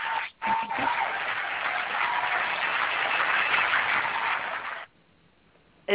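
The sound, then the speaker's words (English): Steady, dense applause with many hands clapping at once, a broad hissing wash that holds for about four and a half seconds, then cuts off abruptly to near silence. “Is that …, like a, ba- a background applause or something?”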